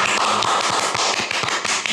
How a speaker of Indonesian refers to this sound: Ya, tepuk tangan lu kita buat Mas